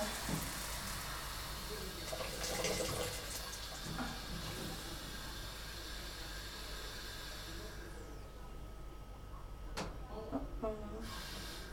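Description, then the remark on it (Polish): Water is poured into a hot cooking pot where food is frying in coconut oil, raising a steady, loud hissing rush that lasts several seconds before settling into quieter simmering with a few light clinks. “Zaraz dodamy wodę.”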